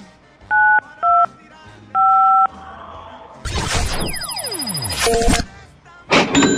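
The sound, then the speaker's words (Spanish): Three short, loud dual-pitch keypad tones beep in quick succession as 925 is dialed on a phone, followed by a burst of bright electronic whooshing and chiming sounds that sweep down in pitch as a prize roulette comes up. “Tienes que picarle a tu teléfono 925.”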